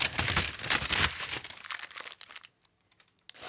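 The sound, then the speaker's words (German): Loud paper rustling and crinkling as a large envelope is handled and torn open, with gummy bears shifting inside, fading to a few soft crackles near the end. “Ist immer schön, wenn es darin so raschelt. Es Sind nämlich Gummibärchen drin.”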